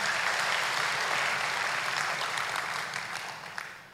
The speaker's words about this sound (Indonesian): Yang setuju berikan tepuk tangan buat Tuhan Yesus.